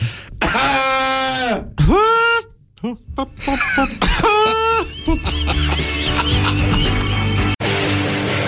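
Loud, close, exaggerated comic coughing: a few strained, drawn-out vocal bursts with a bleating, whinny-like wail, before upbeat music takes over in the second half.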